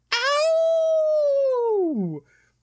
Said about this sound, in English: a howl erupts through the air, and the wolves Jesus. turn and run in fear.